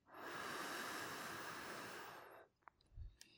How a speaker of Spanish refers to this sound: Te invito a que tomemos una respiración larga y profunda para cerrar nuestra práctica. Inhala.